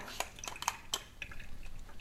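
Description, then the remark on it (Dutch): Dishes and cutlery clink and clatter in a few sharp knocks as they're set into a fairly full dishwasher rack, followed by quieter shuffling and faint clinks. “Nou, best wel vol. Ik heb nog, een, eh, nog wel een beetje ruimte.”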